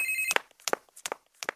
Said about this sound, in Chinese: 哎，探长，我手机又响了，学生家长打来询问状况，我先接电话。